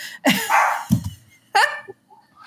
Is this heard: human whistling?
no